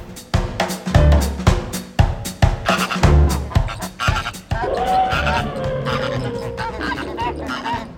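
Canned (prerecorded) zoo animal sounds: two deep, loud bursts, a lion's roar and an elephant's call, followed by the steady, overlapping nasal honking of a flamingo flock that continues to the end.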